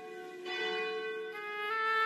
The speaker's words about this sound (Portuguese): Momento que bate o sino da Nossa Senhora de Aparecida, momento que a gente pede ao Pai a proteção